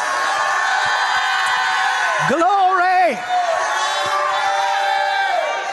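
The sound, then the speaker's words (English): An audience shouts and cheers loudly throughout, a dense roar of voices, with one person near the middle calling out a single drawn-out word above the crowd. “I'm going to stop till somebody shouts.”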